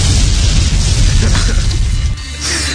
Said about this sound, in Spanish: Debería tener ese, botón ahí preparado, puta madre. no, pero tengo una explosión eh, en lugar de eso.